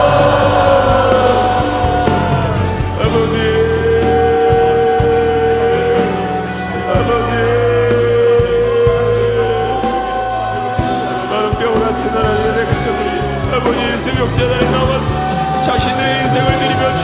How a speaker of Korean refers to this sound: 우리 다 같이 주여 한번 외치시며 주님 앞에 기도하며 나아갑니다. 주여!